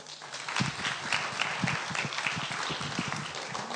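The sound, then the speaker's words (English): An audience breaks into steady applause, many hands clapping in a dense, continuous patter at an even, moderately loud level for a few seconds, with no voices heard. “Okay, brilliant. Give him a clap.”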